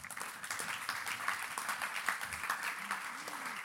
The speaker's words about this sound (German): Ja, geben wir doch der Annika Bachmann einen herzlichen Applaus